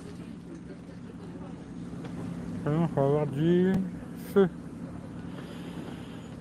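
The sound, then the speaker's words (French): A boat's engine drones steadily and low over the water, a constant rumble throughout, while a couple of voices speak briefly over it in the middle. “Hum, hum, salut, joli bateau, c'est des riches.”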